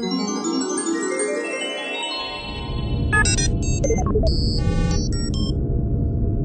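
A steady low electronic hum of the instruments inside a spaceship travelling toward the Moon, overlaid with sweeping tonal drones and then clusters of short, bright beeps and chirps, with no voices.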